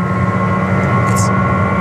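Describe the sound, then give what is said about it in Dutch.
A loud, steady electric drivetrain whine with strong tonal hum and road rumble, heard from inside the cabin of a Jaguar I-Pace electric car accelerating hard uphill at about 207 km/h, sounding somewhat like an angry tram. “Dus dat op het moment dat je gas geeft of stroom geeft, ik weet niet meer hoe welke termen daar aan moeten gaan geven straks, dat hij gewoon ja, wel een soort hele boze tram nadoet. Gewoon echt herrie maakt.”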